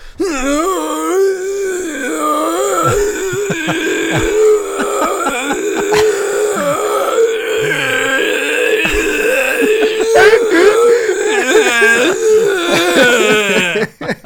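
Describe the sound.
A man's voice imitates the male straining groans of an arm-wrestling film for about fourteen seconds, a loud, continuous, wavering series of grunting moans that rise and fall in pitch, with no words spoken.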